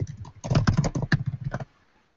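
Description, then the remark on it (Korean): Rapid typing on a computer keyboard, a dense run of clicky keystrokes at an uneven rhythm for about a second and a half, clear, then it stops into quiet. No one speaks. “G에서 키보드 소리가 들려서 감동했습니다.”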